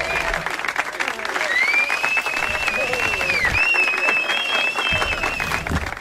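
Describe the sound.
A steady round of applause in a studio, dense clapping that holds at a constant loud level for several seconds, with voices and a thin whistle-like tone rising above it.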